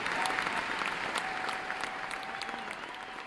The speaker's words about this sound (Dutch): Dan komt Sylvie het podium opgelopen. Applaus stijgt op vanuit de stoelen. Sommige mensen joelen.